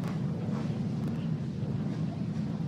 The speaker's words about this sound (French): Mais écoutez, vous devez entendre le bruit des motos là qui euh, ont pris euh, le, la tête hein, du cortège de la marche blanche, puisque Enzo adorait, les, motos.